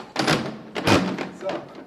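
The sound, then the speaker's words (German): The large lever of a heavy wooden printing press creaks and groans as it is forced along with great effort, with two strong bursts of grinding, thudding wood and a brief squeak near the end. “Die lässt sich nur ganz, ganz schwer bewegen und die knarzt auch furchtbar hier die Presse aus dem Holz.”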